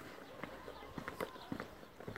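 Footsteps climbing the stone stairs of a mountain that holds an ancient shrine, in a steady, unhurried rhythm of crisp scuffing impacts, over a faint, constant background hiss, as the climber counts the steps.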